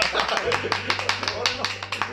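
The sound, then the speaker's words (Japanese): A short burst of applause: several people clapping in quick, uneven bursts of sharp, crisp slaps at fairly steady loudness, with a low, constant hum underneath. “はい、終わりたいと思います、はい、今度こそ拍手してもらっていいです”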